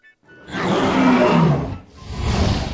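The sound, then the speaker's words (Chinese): A monster, kicked in the face, lets out a deep, angry roar that swells loudly and rasps for about a second and a half, briefly dips, then surges again in a second growling burst, with no talking. “怪物终于清醒了，他是被踹的生疼啊！愤怒的大吼一声”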